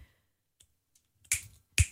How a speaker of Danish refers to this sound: Altså knipse, det her bare, du kan jo sådan en rigtig lækker knipsning.